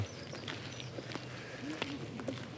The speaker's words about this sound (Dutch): ja, ik bedoel, voor mij is dat, ja, dat er nu mensen voor mij lopen op, ja, wat zou het zijn, een meter of meter of vijf misschien, ik weet niet